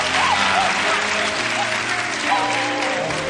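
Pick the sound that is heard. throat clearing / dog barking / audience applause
audience applause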